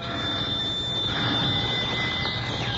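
An old-fashioned doorbell at Miss Mamie's house rings continuously for about three seconds, a steady, high metallic jangle held at an even, fairly loud level with no pauses and no voices.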